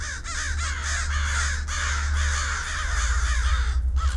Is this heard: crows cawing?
yes